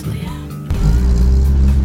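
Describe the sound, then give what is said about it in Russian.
A loud car engine at the Lada Club NSK and TASS Club Barnaul car meet by the Malinka shopping centre on the last day of November rumbles deeply, then surges into a heavier, throatier roar partway through and holds there for the rest of the moment. “на громкие во всех отношениях машины, посаженные”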